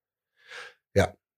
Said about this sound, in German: Ich glaube, das wird nicht mehr besser mit dem Husten da hinten.